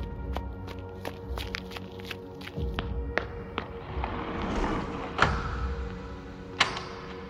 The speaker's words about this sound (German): Hinter mir sah ich zum Glück ein Gebäude, ein Einkaufszentrum, so groß, dass ich mich halb so groß wie gewöhnlich fühlte. Die Türen öffneten sich und ich rannte hinein.